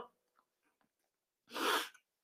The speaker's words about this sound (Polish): uwaga, będzie kichane